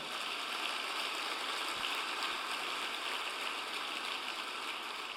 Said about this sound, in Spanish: El que lo crea, dele un aplauso al Señor.